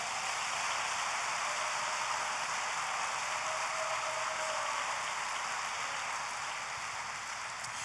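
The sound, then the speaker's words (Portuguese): An audience applauds Jesus in a dense, steady wash of clapping that holds at an even, loud level for several seconds, with no voices heard over it. “Aplauda Jesus por isso, filho.”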